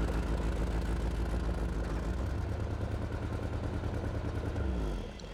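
A limousine's engine hums with a steady low rumble for several seconds, then drops to a quieter idle near the end as it pulls up and parks at the foot of an airplane.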